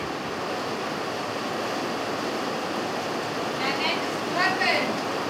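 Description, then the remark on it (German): Heavy rain pours down in a dense, steady hiss that fills the whole clip, with a faint voice briefly audible near the end. “Ich will stark regen.”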